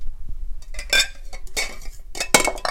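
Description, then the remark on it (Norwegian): Four drinking glasses clink together as they are gathered in a hand while tidying up, a few bright, ringing knocks and rattles spread irregularly over a few seconds, with no one speaking. “Nå har jeg fire glass i hånda.”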